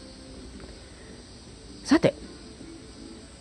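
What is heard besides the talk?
cicadas chirping in summer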